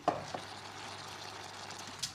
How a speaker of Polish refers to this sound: Już tutaj y, widzę śliweczki na ogniu bulgoczą. Tak, cały czas bulgoczą. Pilnujemy, żeby się nie przypaliły.